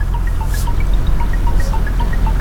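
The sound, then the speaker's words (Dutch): Water sprays and splashes steadily from a garden hose onto the empty car deck of a river ferry, as the ferryman cleans the deck with river water. A continuous wet rush with scattered drips, over a low engine-like rumble. “Het ligt stil aan de overkant en de veerman loopt met een tuinslang over het lege autodek. Hij spuit met rivierwater zijn pont schoon.”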